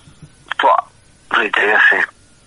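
Two short electronic telephone dialing tone bursts, the first brief and the second longer, fairly loud, with quiet background and no other sounds between, as a phone call is placed live on air.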